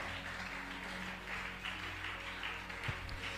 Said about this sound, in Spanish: Pues, espabila, no te quedes. ¿eh? Dale ese aplauso al Señor, no te quedes. Espabila.